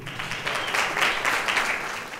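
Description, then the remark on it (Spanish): A crowd applauds steadily for a man invited up to help the speaker, a dense wash of many hands clapping at a moderate, even volume throughout, with no voices standing out. “denle un aplauso a mi amigo”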